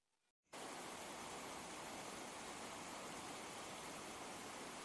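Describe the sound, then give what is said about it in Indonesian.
At nine o'clock at night, a steady, even hiss of gentle rain begins after a brief quiet moment and continues unbroken at a constant level, a soft continuous wash with no voices. “Gemericik hujan terdengar pelan.”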